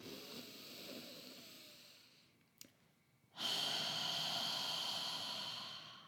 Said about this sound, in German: Und ich bin ein Fan von durch die Nase einschnaufen, heben und durchs Maul laut ausschnaufen. Also es darf wirklich ein bisschen blöd tönen. Es muss nicht schön sein, es muss nicht sexy sein, gar nicht, sondern es geht so aus.